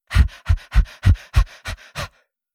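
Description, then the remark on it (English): Seven forceful, rhythmic panting breaths, loud, evenly spaced about a third of a second apart and tapering slightly before stopping, with no talking; a person breathing the way Maori warriors do in a haka dance. “I was doing the same thing Maori warriors do when they haka dance, which, if you haven't seen one, you need to.”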